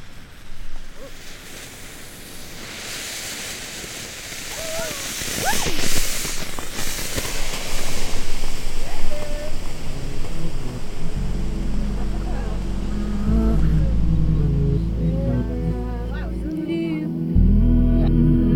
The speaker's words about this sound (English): to be honest, they were baby announcement smoke bombs. Yeah, like the the gender reveal announcement smoke bombs, so they're colored depending on the sex of the child.